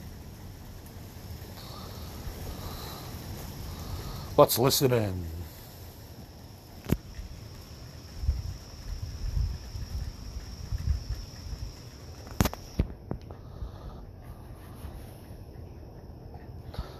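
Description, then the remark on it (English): Steady hissing rain fills the background while low, muffled rumbles of thunder roll in partway through, with a few sharp clicks and a brief spoken line near the start. “I think it's getting the thunder and a little bit of the rain.”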